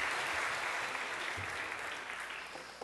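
An audience claps steadily for a person who gave a correct answer, a dense, sustained wash of applause that fades slightly toward the end, with no one speaking over it.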